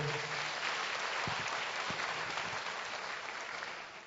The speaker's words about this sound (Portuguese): E graças a Deus pela sua vida, aplauda Jesus porque ele trouxe você.